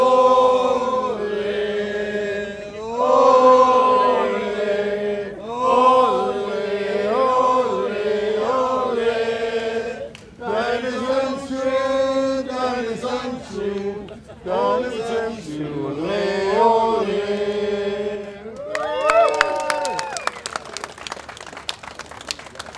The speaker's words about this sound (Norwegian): Nå er det fansanger her også, hører vi.